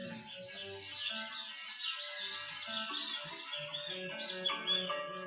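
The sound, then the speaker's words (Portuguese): A dense, steady chorus of small birds chirping and twittering together outdoors, fairly quiet and continuous throughout, with no voices. “Cheio de passarinhos.”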